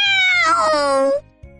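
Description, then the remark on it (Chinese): One loud, drawn-out meow of a big cat coming to look for the kitten, sliding downward in pitch and lasting about a second, heard over a steady, thumping musical beat. “忽听一声猫大叫，大猫来把小猫找。”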